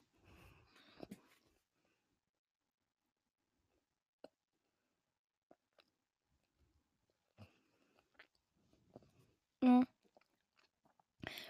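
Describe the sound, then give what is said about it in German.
Short, gruff pillager mob noises from the Bedrock Edition of a video game: scattered huffs and clicks separated by quiet gaps, then one loud grunt near the end and a final brief rasp. “Ähm, in der Bedrock Edition, also, der Plünderer hört sich so an.”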